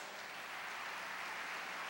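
An audience applauds to give glory to God, in 2017, in a steady, continuous wash of many hands clapping, dense and even throughout with no voices on top, fairly soft in level.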